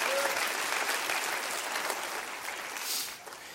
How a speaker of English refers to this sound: Come on, clap your hands to that right now. Clap your hands to that right now.